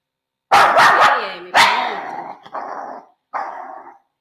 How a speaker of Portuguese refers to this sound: E aí o cachorro late, late, late, vou ter que cortar esse pedaço da gravação.